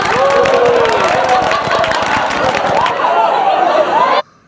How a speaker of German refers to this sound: Soll ich mal was zum, zum, zum Absetzen machen? Mal ein kleines Lachen mit Applaus, ja?